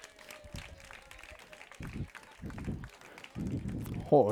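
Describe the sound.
Scattered audience applause with quick claps rattling throughout, fairly soft, mixed with bursts of crowd voices and cheering that swell toward the end.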